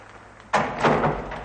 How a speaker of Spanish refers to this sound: El joven cierra la puerta.